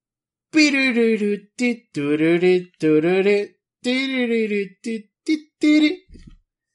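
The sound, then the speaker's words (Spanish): A device alarm signalling that half an hour has passed plays as a series of short, bright, voice-like melodic bursts with gliding pitch, loud, stopping and starting for several seconds before ending. “Ese es el sonido de su alarma.”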